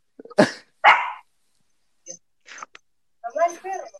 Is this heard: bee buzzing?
no